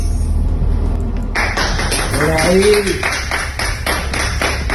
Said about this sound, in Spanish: ¡Ay, con aplauso!